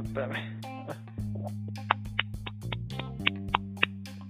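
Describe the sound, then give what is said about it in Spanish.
A voice mimics a rhythmic slapping sound with a quick series of sharp smacks, roughly evenly spaced, over a steady low hum in the background. “Ese sonido, pues, ¿nos puedes ilustrar aquí lleno? Eh. Sonido del chancleo.”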